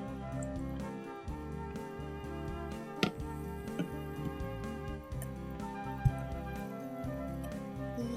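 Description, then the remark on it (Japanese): Soda fizzes steadily as a highball drink is mixed on the weak side, a soft, continuous crackling hiss, with a couple of brief clinks partway through. No one speaks. “感じのシュワシュワ音”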